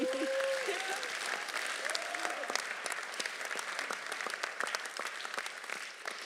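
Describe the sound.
An audience claps steadily, a dense patter of many hands that holds for several seconds before tapering slightly, with a few faint voices mixed in near the start.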